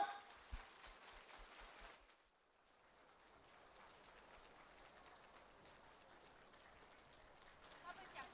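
An audience applauds warmly to welcome station director Lu Junhong, a dense, steady patter of clapping, with soft rhythmic low thumps at the start; the clapping dips briefly, then swells back and continues evenly to the end.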